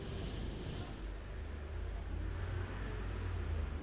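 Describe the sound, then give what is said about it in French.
Steady low rumble of city traffic on Boulevard Saint-Germain at a red light, with many cars and people crossing, a continuous wash of engine noise with faint higher hiss, moderately loud and unbroken throughout. “le feu est rouge boulevard Saint-Germain, plein de gens traversent juste devant moi.”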